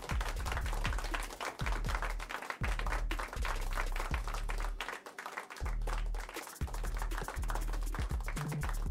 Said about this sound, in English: Yeah. yeah clap it up.